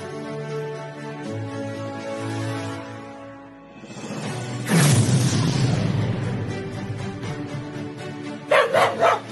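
A dog barks in a commercial, with short sharp barks near the end after a stretch of sustained tonal sound and a loud rushing burst in the middle. No one speaks.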